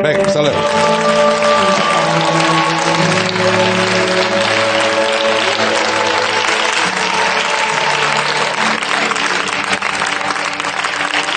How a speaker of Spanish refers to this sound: Un aplauso a toda una carrera, ¿no?